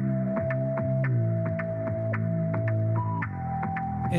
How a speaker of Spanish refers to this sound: así suena la electrónica. Si tú aceleras esto, es electrónica.